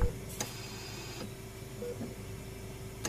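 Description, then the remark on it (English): A faint, failing heart monitor beeps a couple of times from a room down the hall, over a thin, steady electronic tone, with soft clicks and a low background hum. “The sound of that failing heartbeat monitor is something you know all too well.”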